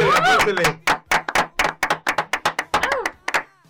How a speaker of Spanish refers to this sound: Un aplauso, aplauso, aplauso.